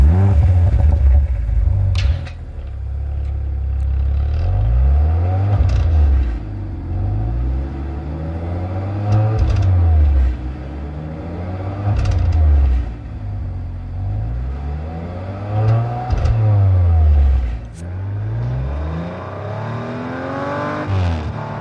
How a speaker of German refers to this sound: Ähm, Sechszylinder Audi Motor RS4 oder RS5. RS4 B9, RS5.